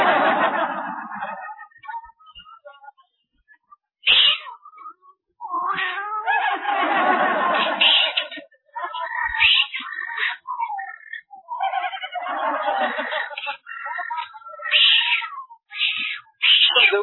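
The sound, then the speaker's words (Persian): A cat meows and yowls repeatedly and loudly, in drawn-out wailing cries with short pauses between them, some rising into strained caterwauling. “این گربه باید عامل اجرای حکم اعدام باشه”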